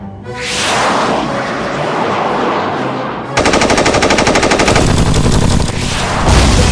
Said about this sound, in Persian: توپ 76 آماده برای شلیک خورد به هدف خورد به هدف قربان